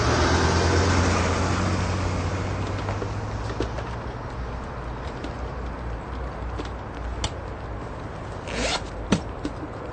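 Rustling and shuffling as belongings are packed into bags, with scattered clicks and a quick zipper pull near the end, over a faint low rumble early on. No one speaks.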